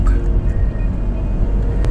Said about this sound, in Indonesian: Oke kawan-kawan kembali lagi masih dengan saya di dalam mobil sambil ngevlog.